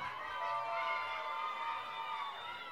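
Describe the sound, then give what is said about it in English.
A crowd cheers and shouts loudly and continuously for a birthday shout-out, a dense wash of many voices whooping and yelling together throughout, with no single voice standing out. “Make some noise, baby.”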